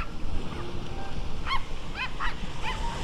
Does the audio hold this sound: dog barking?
yes